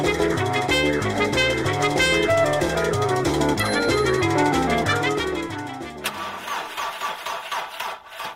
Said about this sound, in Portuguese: Pô, bicho, não consigo fazer o carro pegar. Duas semanas que você não desce, eu subi, já acabou a bateria. Não, não pega.